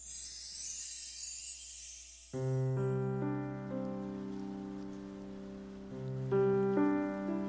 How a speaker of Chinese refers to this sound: 雨声划破了早晨，这天，宜兰用了最宜兰的方式迎接了游学的到来。